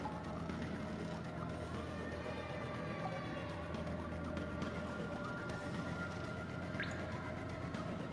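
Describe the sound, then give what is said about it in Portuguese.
Water drips in a dark tunnel amid a steady rumble of cars passing overhead, with faint tonal hums running throughout and one brief high chirp near the end. No one speaks. “Você só escuta o que você está escutando, que é o som do carro, dos carros passando por cima, os ratos e esses gotejar.”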